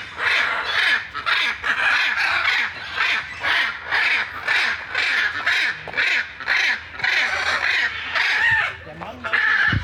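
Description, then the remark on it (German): Hyacinth macaws, very large parrots, call loudly and harshly in Berlin, a steady run of raucous squawks repeating about once a second for the whole stretch, dominating everything else. “Und die, die da gerade im Hintergrund so laut sind, das sind Aras. Ich glaube, hyanzint aras Oder das sind die ganz, ja, das sind die ganz großen.”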